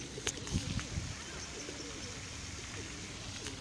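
A few low, throaty pigeon coos rumble early on, then fade into a steady outdoor hiss, with faint higher chirps scattered through the background.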